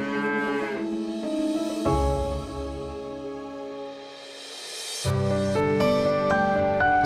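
A cow moos loudly in long, drawn-out bellows, several calls running almost back to back with a short dip between them, and no one speaking.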